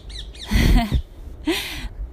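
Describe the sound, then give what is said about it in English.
A crow calls: two quick high chirps, then two louder, harsh, raspy caws with a short pause between them. No one speaks. “I don't know if you can hear that bird chirping away.”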